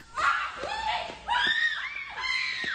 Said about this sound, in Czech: Je slyšet křik, tušíme údiv a zděšení. Ať jsou záběry pro svou krutost rozostřené, je jasné, že se na místě děje něco děsivého.